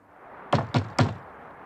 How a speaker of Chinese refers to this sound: 马丁是一只快乐的企鹅，直到有一天，另一只名叫维克多的企鹅敲响了马丁的家门。